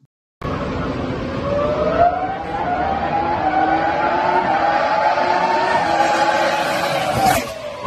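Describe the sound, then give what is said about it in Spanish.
The engine of the Renault R25 Formula One car, driven by Fernando Alonso in a test, screams at high revs, its piercing tone climbing steadily for several seconds, then cutting off with a brief crackle near the end. Loud, continuous, with no talking. “Fernando Alonso probando el R25 de Renault que le dio tantas satisfacciones hace ya 15 años.”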